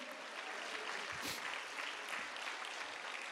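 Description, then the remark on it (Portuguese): An audience applauds steadily in praise of God during a church sermon, a dense wash of many hands clapping at an even loudness throughout, with no voices rising above it. “Aplauda a Ele, irmão, a Ele, somente a Ele.”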